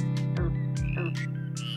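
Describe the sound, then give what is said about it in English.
Short chirping frog calls, including those of the coqui, desert rain frog, spring peeper, squirrel tree frog, whistling tree frog and green frog, repeat in quick bursts over a steady, droning musical backdrop. The croaks are woven into the rhythm of a music remix at a loud, even level. “The remix incorporates the calls of various frogs featured on the show”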